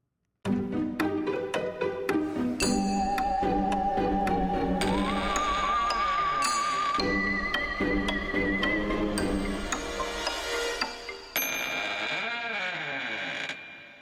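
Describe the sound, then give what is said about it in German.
A short instrumental music interlude plays steadily for about fourteen seconds, with a bright, busy arrangement and a wavering melodic lead line. No one speaks. “Ich warte kurz auf euch mit einer kurzen Musik, dann könnt ihr euch einen Stift holen und einen Zettel.”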